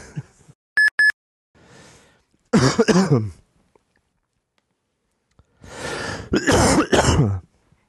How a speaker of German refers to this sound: Ich habe eh schon jetzt irgendwie Wasser neben mir, aber so ganz ausschalten kann man es nicht, das Husten.